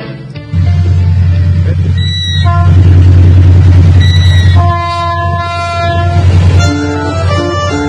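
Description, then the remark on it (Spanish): A train arrives, rumbling loudly, its heavy low roar steady throughout, while the horn sounds in several long, harmonious blasts, the last ones sustained. “La llegada del tren y todo”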